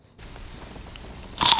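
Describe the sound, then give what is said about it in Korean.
A single sharp, crisp crunch of teeth biting into an apple, bursting loud and bright near the end after a stretch of quiet, faint background rustle. “네, 사과 깨무는 소리입니다.”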